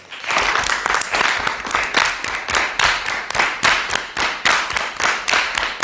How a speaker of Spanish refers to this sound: señores del público aquí presente, vamos a aplaudir por sevillanas y a ver si sabemos seguirles el paso. Venga, va. Uno, dos y tres.